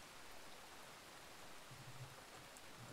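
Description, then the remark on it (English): Steady, even rainfall hisses throughout, a soft continuous wash of drops with no clear thunderclap. It's fairly quiet and constant, and no voices are heard. “Um, but on top of that, you're not hearing anything else except the rain and the occasional thunder.”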